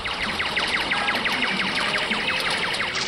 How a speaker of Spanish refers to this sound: salas de pachinko, motos, fábricas, tráfico, ruido, progreso, contaminación.